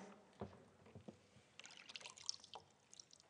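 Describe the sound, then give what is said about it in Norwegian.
Water pours and splashes in short irregular bursts, a soft liquid trickle with a few brighter splashy moments, fairly quiet, with no voices. “Så jeg gikk og fant vann til Tora, og hun tenkte 'hva kommer nå?' Så gjorde jeg sånn.”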